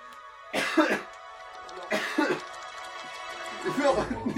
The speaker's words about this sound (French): Désolé, mec, je tousse.